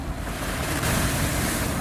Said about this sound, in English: Meanwhile, the disciples were in trouble, far away from land, for a strong wind had risen, and they were fighting heavy waves.